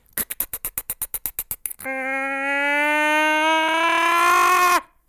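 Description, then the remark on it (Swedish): A voice imitates a metal detector: a quick series of about fourteen sharp rhythmic clicks, its crackling sound when nothing is found, then a long, steady electric buzzing hum with rich harmonics that slowly rises in pitch and intensity, as when nearing metal, before cutting off. “Och sen så började det låta så här elektriskt hummande då när man närmar sig metall.”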